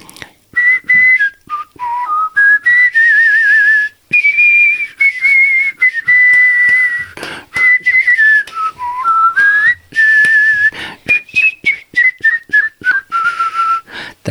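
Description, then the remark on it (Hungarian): A person whistles a lilting waltz melody, clear and close, with quick warbling trills and bird-like chirps woven between the sustained notes. No speech, just the solo whistle. “Nem tudsz ebből egy pici részletet valamit fütyülni?”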